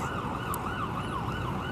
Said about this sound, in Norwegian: Og vi står i en strøm av gule drosjer fram og tilbake her på en liten sånn øy ute midt i dette havet av biler og store hus og ser på det.